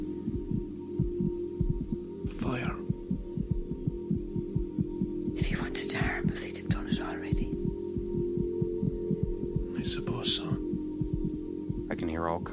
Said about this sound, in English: If I concentrate at night, I can hear their hearts beating.